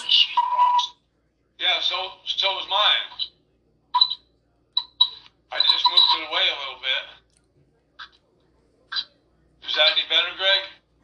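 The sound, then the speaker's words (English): A thin, telephone-quality voice on a phone during a live stream speaks in short, choppy bursts separated by silent gaps, each phrase seeming to smear and repeat back on itself like an echo on the line. “Nope. I'm still echoing.”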